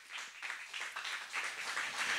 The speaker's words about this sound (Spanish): Dice usted bien a eso, dele fuerte esas palmas al Rey de Reyes.